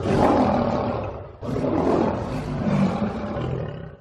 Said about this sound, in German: Gut gebrüllt, Löwe.